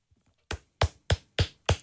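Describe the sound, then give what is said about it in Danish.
Five soft, dull pats land in an even, steady rhythm, like a hand patting a sweater, each a brief muffled thump with a faint fabric brush. No one speaks. “Jeg klapper lige min sweater.”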